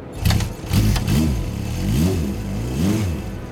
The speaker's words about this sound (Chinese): 引擎隆隆作响。他往前一个弯腰，离合器咔嗒一声。雪地摩托车就像抹了油的闪电一样，飞驰了出去，